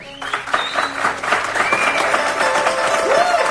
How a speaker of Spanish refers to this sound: Gracias por estar aquí. Os pido un aplauso, por favor.